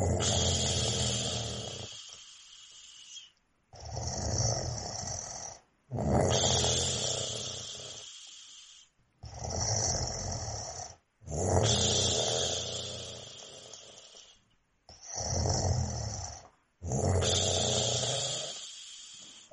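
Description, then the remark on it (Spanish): A man snores loudly in a steady cycle of about seven labored, piston-like breaths, air entering and leaving with difficulty, each rasping intake and exhale separated by short pauses, with no talking. “Sí, aquí se parece que ese ruido también como que algo se poncha, también nos lo refieren continuamente, y sí, como, como un pistón, entra el aire con dificultad y sale también con esa dificultad”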